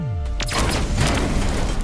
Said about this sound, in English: Armor, damage report. Explosions reduce defenses by one fifth.